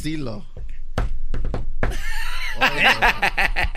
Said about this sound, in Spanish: y que toca la puerta. ¿Eh? O sea, hay, un toquido especial. Hay un toquido con...